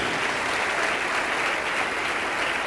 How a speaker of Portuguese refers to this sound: Quem ergueu a mão, vem para cá, vamos aplaudir ao nome de Jesus, vem para cá.